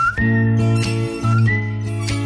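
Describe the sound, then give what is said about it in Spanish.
A clear whistled film-soundtrack melody, a theme later reused by Tarantino, glides and rises over a loud, steady musical backing with deep sustained notes and sharp percussive accents, with no voices, ending abruptly after a couple of seconds. “Quítale a esto el silbido y se queda nada.”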